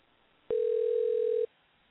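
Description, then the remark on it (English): A telephone dial tone sounds once as a steady, unwavering hum for about a second while dialing through a switchboard, starting and stopping abruptly, clear with quiet before and after. “Sometimes it takes a couple of tries to get somebody on the phone this way, dialing through the switchboard.”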